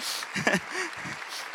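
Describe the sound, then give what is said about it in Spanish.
An audience claps together in a steady, diffuse, soft patter, with a few faint voices rising briefly through the applause. “Ah, si va a aplaudir, ayúdeme, aplauda bien, por favor.”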